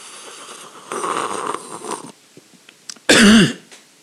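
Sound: human coughing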